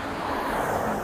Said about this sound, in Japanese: ちょっとね、車があるとこなんで音も入ってると思いますが。